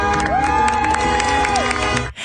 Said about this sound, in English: His customers lined the streets to thank him for his essential work adults, kids, even dogs showed up to cheer him on.